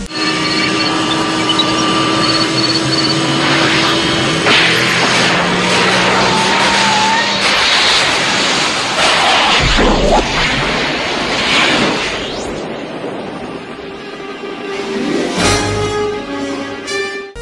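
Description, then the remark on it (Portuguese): A time machine travel whoosh effect for a DeLorean going a few days back in time: a loud, dense engine-like roar with whirring, shifting tones and sudden surging bursts, building and fading over about seventeen seconds with no voices. “Peraí, peraí, deixa eu ajustar aqui os controles do DeLorean, papi, pum, pipó, só alguns dias para trás, tá?”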